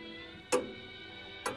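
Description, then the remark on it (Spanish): Two crisp clock ticks, about a second apart, over a faint steady background hum, with no voices. “Lo más triste, caballero, un reloj.”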